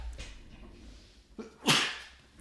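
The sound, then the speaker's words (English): A single sharp sneeze bursts out loudly after a brief inhaled lead-in, with a quieter breathy sound just before it and faint background noise around. “and um, bless you. Thank you.”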